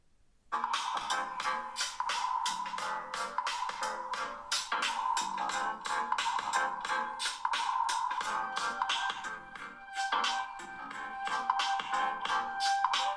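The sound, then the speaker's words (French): Tinny, thin music blasts at full volume from a smartphone's loudspeaker at the bottom of the phone, about 30 to 40 cm from the microphone, bright and narrow with little bass, playing continuously with a steady pulsing beat and no talking. “Voilà, on va mettre à fond. Alors un petit truc à savoir, là le, le téléphone il est à peu près à 30 cm, 40 cm du micro.”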